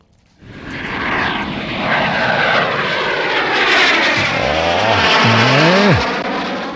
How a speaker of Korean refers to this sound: 비행기 이착륙 소, 이륙 소리입니다. 비행기 이륙 소리.